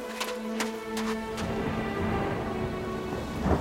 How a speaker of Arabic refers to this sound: يا فرج الله دي بتمطر وادي الارض بتنضف